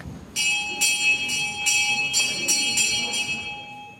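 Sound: bell ringing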